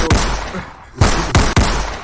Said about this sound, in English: Let me hear some gunshots.